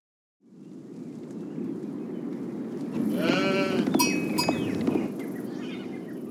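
Sheep bleat repeatedly over a steady, dense rumble of a flock milling about, with a cluster of loud, wavering bleats in the middle before the calls thin out again.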